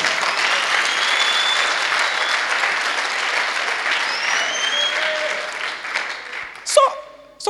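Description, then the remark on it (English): A crowd breaks into steady, dense applause that carries on for several seconds before thinning out, with a brief voice and a few scattered claps at the end. “You are not clapping.”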